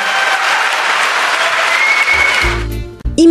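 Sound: concert audience applause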